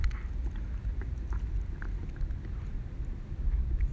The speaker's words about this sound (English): And my dog is uh, playing with a piece of wood.